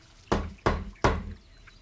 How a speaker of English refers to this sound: Is there a door knocker? There is no door knocker, there is a latch. I raise my hand and I knock three times on the door.